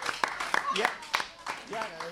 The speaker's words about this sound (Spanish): Fuerte el aplauso, gracias